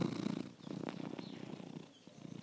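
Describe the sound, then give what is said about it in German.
A domestic cat purring into the microphone, a steady low rumbling drone with rhythmic pulses and a few soft breathy catches, continuing without pause and with no talking. “Vielleicht würde eine unserer Katzen, die Schnurrtier, in den Hörer.”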